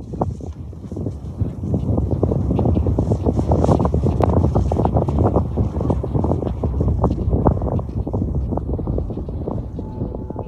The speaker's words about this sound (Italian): Quest'inverno non è esistita la montagna e con lei quelle raffiche di vento gelato che, ad essere onesti, non mi avevano mai fatto molto piacere.